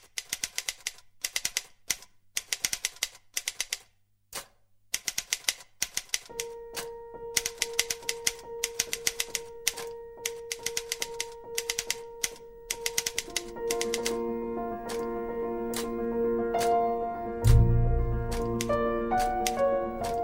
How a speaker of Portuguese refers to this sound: Tipo, ele começa já com aquele barulho da máquina de escrever, porque alguém tá fazendo isso, né? De escrever escrevendo e tal. E aí ele vai incorporando isso dentro da trilha.